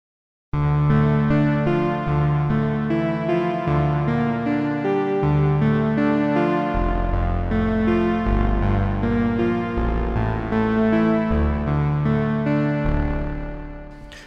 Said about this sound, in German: Also das ist ein Synth, der klingt wirklich sehr schön roh.